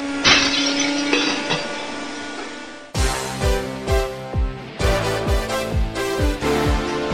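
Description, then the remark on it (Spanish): Metal junk and glass in a scrapyard crash and shatter, starting with a bright ringing smash, then a loud run of repeated clanging, breaking impacts in a rough, steady rhythm, with no voices. “Otras son solo una chatarrería.”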